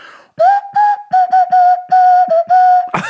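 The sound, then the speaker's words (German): A nose flute plays a short, breathy run of about nine hooting notes at a fairly steady mid pitch, some held and some clipped, ending in a noisy puff of breath. “Würde ich auf der Nasenflöte spielen.”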